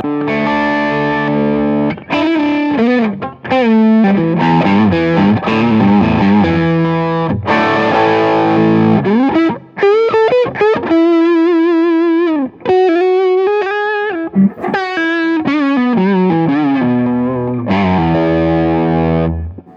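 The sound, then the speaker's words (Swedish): Heavily distorted electric guitar played on the neck pickup, a run of chords and bends, loud, with dense harmonics, short pauses between phrases and some wavering vibrato on held notes; no voices. “Eh, om, du, om du nu har halsmicken och så drar du ner, eh, eh, du tar ett ackord och, efter det så drar du ner lite grann på den tonkontrollen.”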